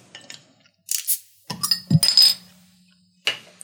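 A crown cap (not a swing-top) is pried off a bottle of hand-brewed, natural West German beer made with Bavarian Hallertau aroma hops: a few small metallic clinks and scrapes, then a sharp hiss of escaping gas with a bright ringing clink, followed by another brief rattle.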